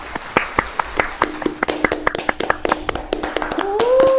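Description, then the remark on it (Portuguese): A short round of hand clapping from a few people, applauding Newton's theory of universal gravitation: sharp, uneven claps lasting about four seconds. A voice calls out over the claps at the end. “Então, eu, eu queria propor um momento para propor que nós batemos uma salva de palmas para a teoria da gravitação universal do Newton.”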